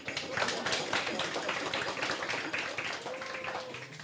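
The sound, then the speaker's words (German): An audience applauds a guest being introduced, many hands clapping in a dense, crackling wash that holds steady for about four seconds at moderate loudness before easing slightly, with no voices over it. “Ein kleiner Applaus wäre an dieser Stelle angebracht.”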